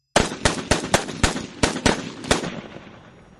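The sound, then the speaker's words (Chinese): A pistol fires about eight rapid, sharp shots in quick, slightly uneven succession, emptying the remaining rounds of the magazine at a man's vital points. The loud cracks are followed by a fading, rumbling echo, with no voices. “神秘人被打得一阵趔趄，枪声停时，神秘人也停了脚步。”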